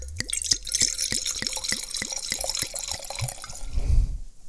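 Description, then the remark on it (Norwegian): South African wine 'Flight of the Furious Fancies' poured into a glass: a quick run of bright glugging drips and splashes with a rising liquid tone, ending in a soft low thump as the pour stops. “Jeg, vi heller i glasset.”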